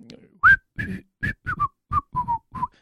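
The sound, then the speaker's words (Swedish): Someone whistles a short tune of about eight clear notes in a steady rhythm, starting higher and drifting slightly lower in pitch, with no talking over it. “Som alltid liksom, eh, som alltid går och visslar, alltså så liksom.”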